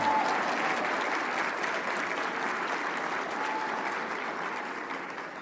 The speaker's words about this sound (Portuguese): podia me aplaudir agora, não?